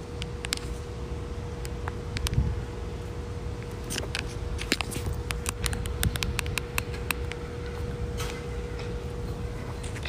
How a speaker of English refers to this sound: It's windy.